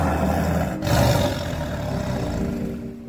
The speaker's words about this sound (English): Just as he spoke, there came from a forest a terrible roar